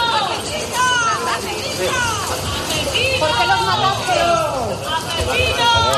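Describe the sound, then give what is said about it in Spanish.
A crowd of many voices shouts "murderers" and jeers as eight detainees arrive at the courts in the morning, a dense, continuous, loud uproar with overlapping cries rising and falling throughout. “Poco después de las diez y media de esta mañana y entre gritos de asesinos han llegado a los juzgados los ocho detenidos por los ataques del pasado viernes que acabaron con la vida de dos guardias civiles en plena persecución en aguas del estrecho.”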